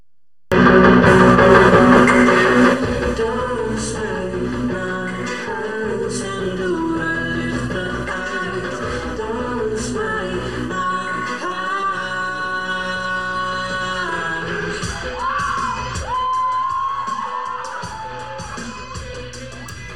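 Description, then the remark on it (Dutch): A live pop song plays at steady volume, its sung vocals heavily processed with vocoder and autotune effects over a full band, with a loud burst at the start. “zitten ook best nog wel wat vocoder en autotune effecten. Eh, in deze live versie die we zagen.”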